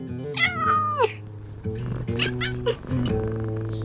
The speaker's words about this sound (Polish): Kotki! Jak ja kocham kotki!